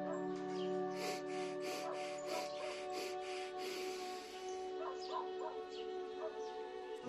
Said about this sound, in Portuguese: E nós vamos começar com, com uma preparação, um exercício de respiração pelo nariz. São quatro respirações curtas e uma longa. Vamos lá?